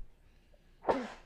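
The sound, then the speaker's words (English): A single sharp sneeze bursts out after a moment of quiet room tone, loud, with a quick breathy explosion that fades fast. “God bless you.”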